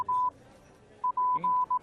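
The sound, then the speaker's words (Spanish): A Morse code telegraph message tapped out as steady, mid-pitched electronic beeps, a mix of short and long tones with brief gaps, clear over a low background hum. “tu Morse es como el chino, tiene varias interpretaciones.”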